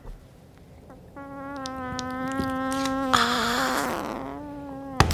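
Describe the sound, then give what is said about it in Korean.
A voice imitates a mosquito's whine, a steady nasal buzzing drone held for about four seconds, fairly loud, wavering slightly in pitch before a sharp slap-like sound at the end as the pretend mosquito is swatted. “모기 소리 음. 한번 더 듣고 싶다.”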